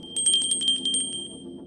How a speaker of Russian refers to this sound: Он запомнил ее, потому что на ее сумочке был маленький колокольчик, который звенел, когда она ходила.